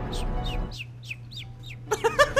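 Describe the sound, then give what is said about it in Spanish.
Chickens clucking: a quick run of six high, chirpy calls, followed by a burst of louder, fuller squawking clucks near the end, with no voices. “que le tiene miedo a, los pollos”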